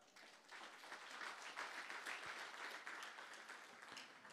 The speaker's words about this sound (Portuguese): Aplauda Jesus.